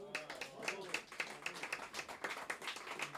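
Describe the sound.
A crowd applauds the collecting and editing work with steady, dense clapping that runs the whole time at an even, moderate loudness, while voices murmur and call out faintly underneath.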